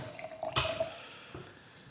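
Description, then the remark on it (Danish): A short splash of liquid tipped out of a drinking glass that was rinsed with a little water, a brief wet gush with a faint ringing tone from the glass, followed by a soft drip before it fades, quiet. “Tømmer du, øh, tømmer du glasset? Ja, jeg har også det skyllet med lidt vand.”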